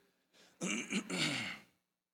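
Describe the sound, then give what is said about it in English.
A single throat clearing, rough and gravelly, with a soft intake just before it. It lasts about a second, with no talking around it. “Did you hear me? About choking up here.”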